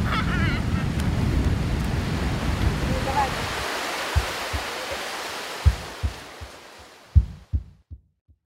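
Ocean waves on the sandy beach at Carcavelos: a loud, rushing wash of surf roars for a few seconds, then drops away, leaving a series of soft, low thuds at uneven intervals before fading to silence.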